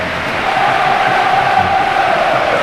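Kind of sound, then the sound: crowd, stadium crowd applauding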